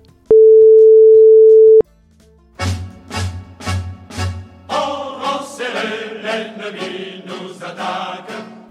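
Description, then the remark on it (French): A telephone call tone as someone phones a friend: one steady electronic beep lasting over a second, a short pause, then four evenly spaced buzzy pulses leading into a denser run of tones. No one speaks. “Les mains rendues douloureuses par de bonnes ampoules, vous saisissez votre téléphone et appelez votre ami.”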